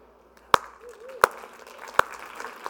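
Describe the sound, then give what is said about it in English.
A few scattered hand claps from the audience, three sharp, separate claps spaced roughly evenly apart over a faint background murmur, rather than sustained applause. “I'll coax a clap out of you on that one because that's, that's better than you think it is.”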